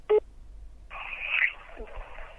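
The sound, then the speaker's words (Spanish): A single short, loud keypad tone beeps at the start as a phone number is dialed to reach the contact line of a foundation that trains fishing observers, then a steady hissing telephone-line noise fills the rest, with no one speaking. “Es difícil encontrar información sobre la fundación en Internet y menos llamando por teléfono, especialmente porque el número de contacto es”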